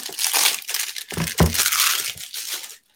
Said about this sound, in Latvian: Labi, ar raujam te viņu vaļā. Šitiem mums ir tāda tā kā cigaretēm kādreiz perforēts tāds, var atcelt vaļā.